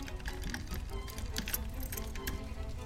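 A bunch of keys jangles in a trembling hand, a steady run of small metallic clinks and rattles over about three seconds, fairly quiet, with a low rumble underneath.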